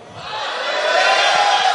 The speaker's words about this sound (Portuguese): Você pode receber essa palavra dando um grito de vitória?